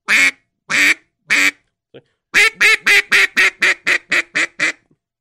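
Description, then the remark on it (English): A duck call is blown in a quack sequence that starts high and goes low: three long, drawn-out quacks, a pause, then a rapid run of about ten shorter quacks tumbling down in cadence, loud. “So it's the same in the duck call. You know, you can start high, then go low.”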